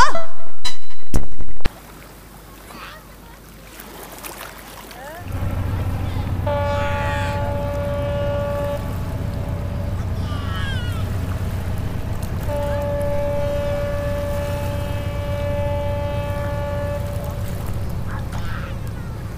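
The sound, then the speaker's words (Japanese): A ship's steam whistle sounds two long, steady blasts from a moderate distance, carried over a continuous low rumble of engine and open water. “正面に広がる海を横切って汽笛を鳴らしているのは赤い船漁船かな漁師さんが乗ってるみたい”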